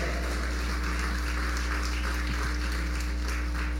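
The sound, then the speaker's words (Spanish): A crowd applauds steadily, dense overlapping claps forming a continuous wash of noise for about four seconds, with a low electrical hum running underneath and no one speaking. “Yo, yo le daría un aplauso a mi papá.”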